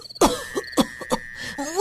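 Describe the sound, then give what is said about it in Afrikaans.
A few short, light coughs, spaced unevenly over a couple of seconds, with no speech in between. “Hoes effens en gaan sit regop.”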